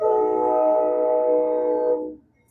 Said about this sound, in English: My train's gonna go by real fast here.